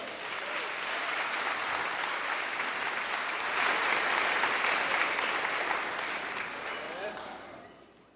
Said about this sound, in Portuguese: Vamos ficar em pé. Pode aplaudir mais forte, né, gente?